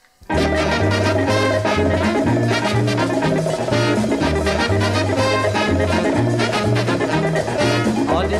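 An upbeat calypso tune from a James Bond film soundtrack plays loud after a brief silent start, with a bouncing bass line and bright, busy melodic instruments driving a steady dance rhythm throughout.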